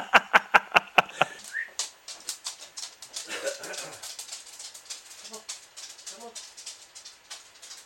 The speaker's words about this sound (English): is that your dog's claws on the floor